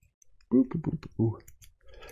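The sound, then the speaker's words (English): Lock pins click as they're reset while a lock is being picked: a quick run of small metallic clicks, with a brief voiced murmur mixed in near the start. “Let me reset a couple of these pins here.”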